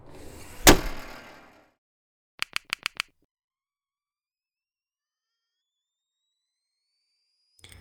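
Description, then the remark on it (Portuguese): A door slams shut with a loud, booming thud that rings out briefly, followed by a quick, even run of five sharp clicks, then near silence. “Tá ouvindo isso? Vamos lá fechar.”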